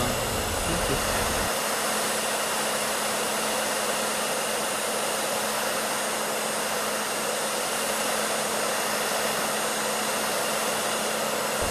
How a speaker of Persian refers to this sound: لطفا این سشوار رو برق بزنیم خب ببینید من الان اینو حرارت میدم این حرارت سشوار نه برای گوشی شما ضرر داره نه هیچ مشکل برای گوشی به وجود میاره